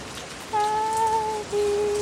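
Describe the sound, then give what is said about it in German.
Light drizzle falling as a soft, steady hiss, joined halfway through by a sustained mid-pitched tone that breaks off briefly and resumes. No one speaks. “Aber es fängt ja schon wieder an zu nieseln.”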